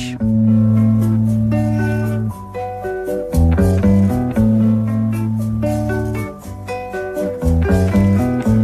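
An instrumental intro to a 1963 French pop song played on Radio Classique: full, sustained chords over a steady bass line, with brighter melodic notes shifting every couple of seconds, loud, with no singing yet.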